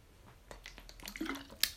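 Someone takes a quiet sip of water, with soft wet mouth sounds, a gulp and a few small clicks, ending in a sharper click. No one speaks.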